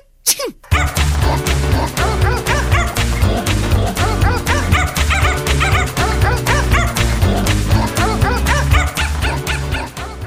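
A bouncy novelty song built from dog barks and yips sung as a melody over a thumping bass beat, loud and continuous with rhythmic, repeated bark notes throughout.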